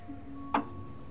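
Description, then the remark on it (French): A single sharp, metallic tick from a Wagner tower clock mechanism in a monument, with a faint ring, over a low, steady background hum. “Et là, vous entendez un bruit que les visiteurs n'entendent jamais, euh, mais voient l'horloge, c'est le bruit de l'horloge du monument.”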